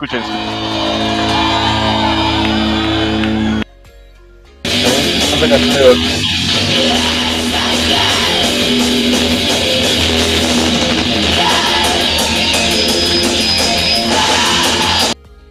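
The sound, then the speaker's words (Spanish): A loud, dense black metal track with harsh shrieking vocals over a wall of distorted guitars and pounding drums, briefly cutting out before crashing back in at full intensity. “Con instrumental puede ser, por el tema de la percusión puede ser que sí, que aguante un poco, pero cuando ya empieza a chillar ya no tanto.”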